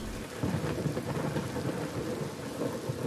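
heavy downpour rain

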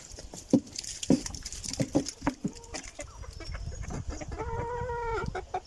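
chickens clucking

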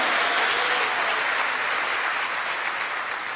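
applause

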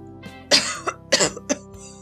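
cough

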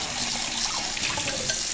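tap water running

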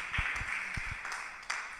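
applause

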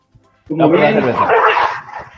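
dog barking

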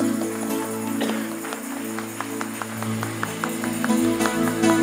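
audience applause

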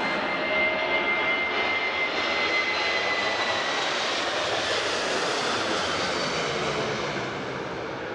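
airplane taking off

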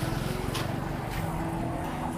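car passing by outside

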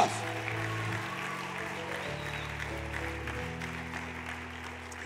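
audience applauding

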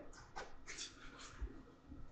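dog whimpering

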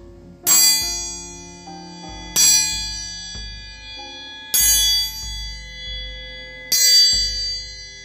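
bell tolling

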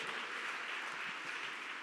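audience applauding

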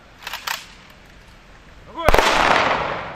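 rifle salute volley

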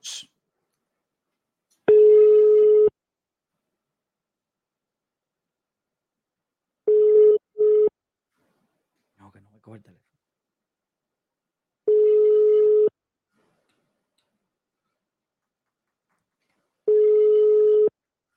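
phone call ringing tone

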